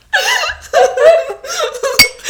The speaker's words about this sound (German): Diese Gläser hören sich, die hören sich komplett scheiße an.